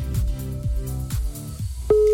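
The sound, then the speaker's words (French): Telephone tones of a call that goes unanswered, as a mother tries to reach her daughter to wish her a happy birthday: a series of low, harmonic notes sounds in steps, then a loud, steady, mid-pitched beep cuts in near the end and holds. “allez, deux bips.”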